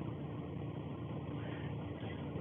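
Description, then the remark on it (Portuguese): A car engine idles with a steady, continuous rumbling drone, holding an even level throughout with no talking over it. “O carro deu um bug aqui, cara. Que não deveria ter entrado.”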